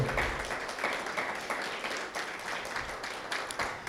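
A church audience applauds steadily to welcome a preacher, a dense wash of many hands clapping with a broad, even noise that holds for several seconds without pause. No one speaks over it.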